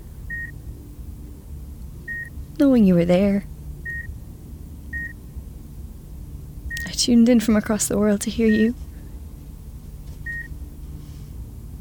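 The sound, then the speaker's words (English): Soft, evenly spaced electronic beeps of a patient monitor chime every second or two, single short tones continuing steadily beneath a person speaking in a low, quiet voice. “I mean, I know you haven't been of a speaking mind the past few years, but hearing the soft beep, beep, beep of your monitor,”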